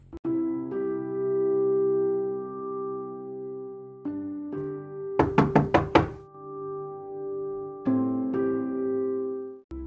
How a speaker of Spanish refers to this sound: Era 8 de septiembre de 1705. Este dato es importante, como veréis después. Ese día, que era sábado, alguien llamó a la puerta de la vivienda de Miss Bagraff.